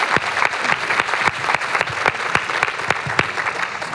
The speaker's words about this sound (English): Thank you so much. Yeah. thank you. Round of applause for these ladies.